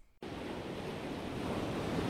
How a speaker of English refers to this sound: It's one of the most beautiful views of any campus in America, the Pacific Ocean crashing against the shores of UC Santa Barbara every morning, noon, and night.